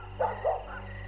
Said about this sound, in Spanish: Todos los perros del poblado comenzaron a ladrar de una manera que se podía percibir en el ambiente que algo no estaba bien.